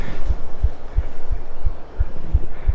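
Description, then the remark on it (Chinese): A person records their own rapid heartbeat during a fast, strenuous walk: it thumps steadily, about eight deep, muffled beats in under three seconds, over a soft constant hiss with no voices. “能录完自己的心跳吗？”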